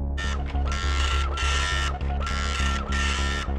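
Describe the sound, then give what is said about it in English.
A printer buzzes and whirs in steady mechanical bursts while printing a sculpture, its motors rising and pausing in a repeating rhythm, fairly loud with no voices. “The ink sacs fluttered as the print tentacles buzzed darting around with spidery precision, weaving the sculpture as if from thin air.”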